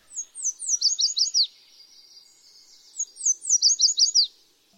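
A Yellow Warbler sings two bright, high-pitched phrases of quick sweet notes that speed up toward the end, with a short pause between them. The song is clear, with no voices.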